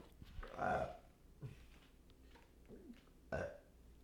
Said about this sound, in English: I kind of was holding off doing this because I thought I was going to burp and I was going to wait to do the burp so I didn't have to do it on the cast, but here it comes. One sec.